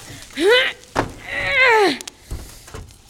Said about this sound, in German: Okay, okay. Schnell das Fenster auf.